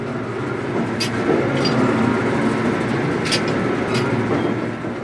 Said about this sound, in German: So klingt ein Ölfeld im Nahen Osten Anfang der 1970er Jahre. Unentwegt klicken die Förderpumpen, die so aussehen wie Pferdeköpfe aus Stahl.